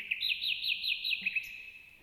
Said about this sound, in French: On a l'impression que les oiseaux chantent plus fort